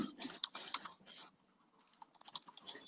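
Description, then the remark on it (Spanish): Rapid clicking of keys on a computer keyboard, fairly quiet, in two bursts with a brief lull between them, as someone types a note; no one speaks. “Vale, pues lo apunto. De hecho, ya está apuntado.”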